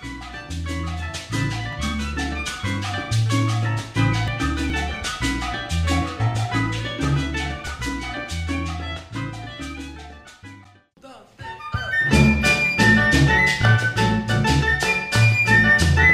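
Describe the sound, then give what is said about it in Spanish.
Live charanga band music plays, with steady syncopated percussion and bright melodic lines. It drops to a brief near-silent break, then comes back louder and fuller. “Aquí los tenemos en esta toma en vivo de …, charanga prendida en Oye la charanga”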